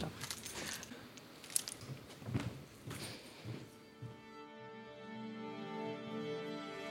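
A bunch of keys jangles on a keyring in an opera house in several quick metallic shakes for a few seconds, then gives way to a steady, sustained tonal hum.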